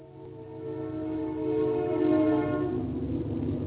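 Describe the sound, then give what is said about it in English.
A train horn sounds in one long, sustained blast with steady harmonic tones that swell slightly midway, over a low rumble of the passing train. No one speaks. “Well, I, I, if you've missed hearing a train whistle, here it comes again.”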